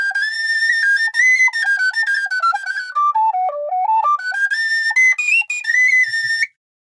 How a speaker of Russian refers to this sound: Свирель, да, вот так выглядит свирель, правда, мне немного... Ну вот смотрите, у вас вот эта маленькая свирель, а у вас есть еще...